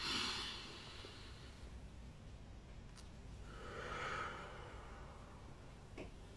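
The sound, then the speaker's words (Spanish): Slow, deep breaths: a long airy inhale at the start, then another soft swell of breath a few seconds later, quiet and unhurried with no talking. “Ah, respiración profunda.”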